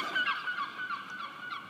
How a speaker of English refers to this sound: Seagulls, far from the sea. That's not um, Fernando Pessoa, that's a comment on what's just flown by.